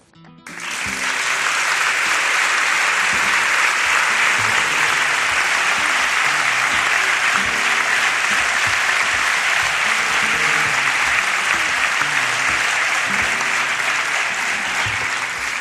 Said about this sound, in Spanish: Aplaudan, por favor.